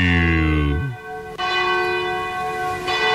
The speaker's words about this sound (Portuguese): Faltando 11 minutos e meio para as 10 da noite, quando bate o sino da Catedral de Nossa Senhora de Aparecida, a padroeira do Brasil.